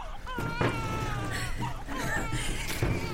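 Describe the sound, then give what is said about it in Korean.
A newborn baby, a prince just born at the Joseon royal court in the evening of the 25th day of the 2nd month of King Jungjong's 10th year, cries in thin, wavering wails, several rising and falling cries in quick succession, steady over a low background hum. “중종 10년 2월 25일 저녁 아, 아기 울음소리가 아니냐 어찌 된 것이냐 아기가 태어난 것이냐?”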